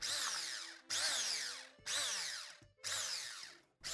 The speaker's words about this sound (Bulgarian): Няколко яйца, и една кофичка заквасена сметана. Овкусявам с сол и пипер. И разбърквам с помощта на миксер.